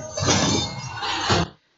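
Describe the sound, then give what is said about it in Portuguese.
A loud crash of an ice wall shattering as a sound effect, a dense burst of breaking and crackling that surges twice over about a second and a half, then cuts off abruptly to silence. “E tem a parede de gelo, é um clássico golpe do Sub-Zero.”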